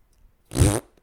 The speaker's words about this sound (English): nope, that was a fart, not a splat. I'm sorry.